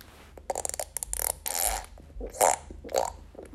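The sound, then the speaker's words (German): A voice blows a series of wet, sputtering raspberry noises with the mouth, imitating farts, several bursts in quick succession, fairly loud, with no speech. “Also, by the way, ich furze jetzt nicht, sondern ich mache das alles mit meinem Mund.”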